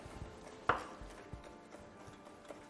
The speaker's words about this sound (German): Olive, ohne Stein. Dann wir schneiden.